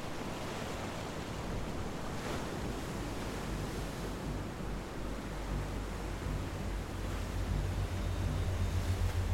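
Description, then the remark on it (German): Steady rushing of Atlantic Ocean waves at dusk fills the scene, a broad continuous wash with gentle swells and a low rumble, constant, with no voices. “Nur das Rauschen der Wellen war zu hören.”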